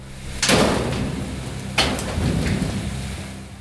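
nature, heavy rain

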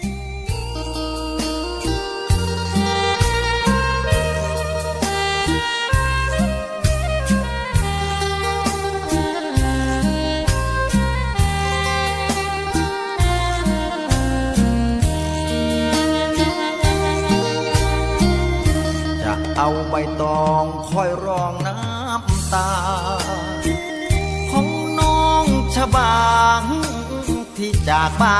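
sound effect, song played on air

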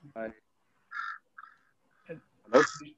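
bird, crows cawing

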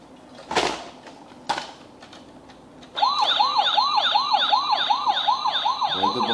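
signal or alarm, police car siren

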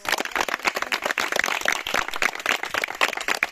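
crowd, audience applause

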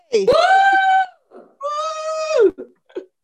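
crowd, audience screaming and shouting

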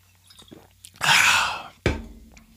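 food or drink, sipping water

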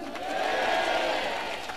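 crowd, audience clapping

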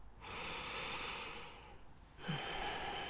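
human body sound, breathing

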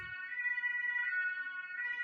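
vehicle, ambulance siren

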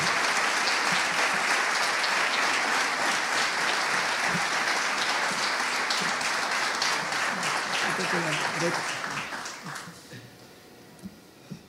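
crowd, loud audience applause

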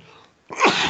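human body sound, sneeze

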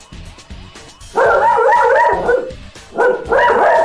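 animal, dog barking and howling

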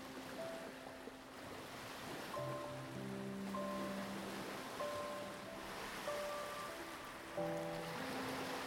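nature, ocean waves

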